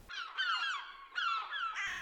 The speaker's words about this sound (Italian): Non ho fatto i conti con i gabbiani. Come i corvi di Hitchcock si radunano, calando dall'alto